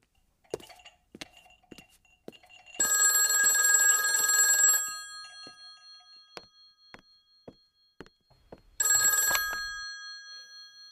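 An old-fashioned telephone bell rings loudly in two bursts, a long trill of about two seconds and a shorter one later, with faint clinks of cups and small clatter in between.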